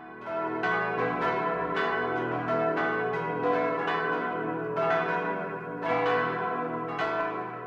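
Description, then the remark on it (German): A full peal of six church bells rings from the tower in Au bei Aibling, overlapping strikes in a steady, rolling rhythm with long shimmering overtones sustaining between them. No voices are heard. “Und so klingt sechsstimmig vom Turm in Au bei Aibling”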